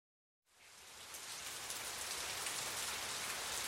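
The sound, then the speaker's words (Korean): After a brief silence, steady rain sets in and keeps falling, a dense, even hiss of drops pattering on a surface, constant with no voices. “로기는 비를 싫어하고 월요일에 학교에는 언제나 비가 오기 때문이다”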